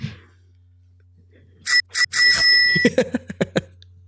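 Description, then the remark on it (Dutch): A bicycle bell rings: two quick dings, then a longer bright trill, followed by a series of softer rapid chimes that fade out. No voices, just a faint low hum underneath. “Ja, een belletje.”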